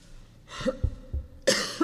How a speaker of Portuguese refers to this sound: Gente, me perdoe. Essa tosse está terrível.